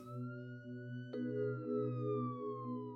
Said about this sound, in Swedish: Ambulansmännen ringer omedelbart polis som kommer med blinkande rödljus och tjutande sirener.